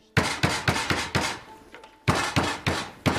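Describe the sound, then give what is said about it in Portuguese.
A fist pounds on a door in loud, heavy thuds: a rapid run of five blows, a brief pause, then four more, with no voices. “Pare de socar a porta!”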